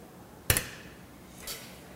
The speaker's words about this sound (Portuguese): fica bravo comigo quando eu bato com a mão do relógio.